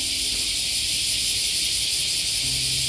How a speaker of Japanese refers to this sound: またね、この、もう1ヶ月ぐらいで今こうやって流れてるセミの鳴き声、えー、もう消えるのかと思うと、うん、寂しいですよね。